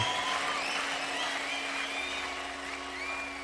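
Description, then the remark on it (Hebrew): An audience applauds a military band's performance in a steady, dense wash of clapping that holds its loudness throughout, with faint whistle-like tones drifting over it and no talking. “מחיאות הכפיים הפכו להיות איזה סוג של נהירה אל חדרי ההלבשה, להגיד לנו איזה יופי, איזה יופי, כי עוד לא הכירו את זה.”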